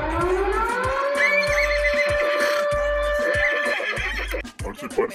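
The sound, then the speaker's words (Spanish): A horse neighs in a long, quavering whinny with a shaky trill, heard over a steady low thumping beat that repeats about once a second before fading out. “Good eh, caballín.”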